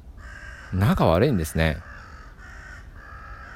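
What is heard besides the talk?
crows cawing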